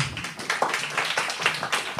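Audience applause: a steady patter of many overlapping hand claps at moderate loudness, continuing evenly for about two seconds with no voices over it.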